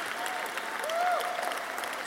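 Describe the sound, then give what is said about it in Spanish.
An audience at a Spanish-language worship gathering gives a loud round of applause to the Lord, clapping steadily in a dense, sustained wash, with a voice rising and falling faintly underneath. “Oh, dale un fuerte, fuerte aplauso al Señor.”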